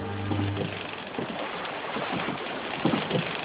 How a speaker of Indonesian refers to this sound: Isa naik ke perahu Simon, terus nyuruh ke tempat yang dalam.